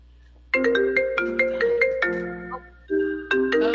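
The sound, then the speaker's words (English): A phone ringtone plays loudly, a quick melodic run of bright synthetic tones in repeating phrases that pause briefly and then start again. “Did you, you put your notifications on”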